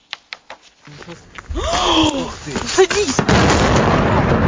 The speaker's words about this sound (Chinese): 巨大闪光伴随爆炸，拍摄民众吓得惊叫连连，烟雾不断往上窜。时间发生在二十六号凌晨，克里米亚港口城市费奥多西亚遭到乌克兰空军袭击。